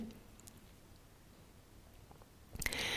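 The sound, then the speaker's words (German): Near-silence gives way to a brief mouth sound near the end, a wet swallow with soft clicks of saliva, quiet overall and heard alone without any talking. A person swallows extra saliva produced while circling the tongue over the teeth in an exercise. “Also entschuldigt bitte die Schluckgeräusche, aber ich ich muss immer mitmachen bei so Sachen.”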